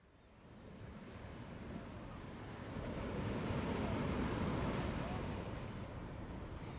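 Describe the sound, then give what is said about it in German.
Sea waves rush steadily against the rocks of Rüben, a broad continuous roar that swells louder midway through before easing slightly, with a gusty, wind-like hiss underneath. “Ich stehe hier auf den Felsen von Rüben und sehe aufs Meer hinaus.”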